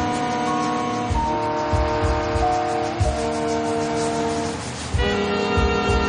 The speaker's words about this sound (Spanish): Más tarde, un tren cruza unas vías. Dave conduce junto a ellas.